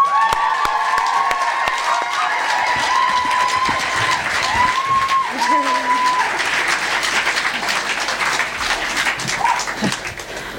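A stage-show audience claps steadily and warmly for about ten seconds as a performer is welcomed to the stage, with high whoops and whistles rising above the dense applause before it begins to thin at the end.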